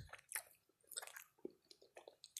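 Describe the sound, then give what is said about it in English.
Moist chewing of homemade waffles, with irregular smacking and squishy bites repeating several times, fairly quiet and with no talking. “But I made homemade waffles and they're so good.”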